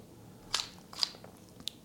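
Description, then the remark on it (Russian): A drill's torque (force) adjustment collar being turned, giving three crisp clicks at uneven intervals with a few fainter ticks between them, against a quiet background and no talking. “Кроме этого усилия регулируется со щелчками.”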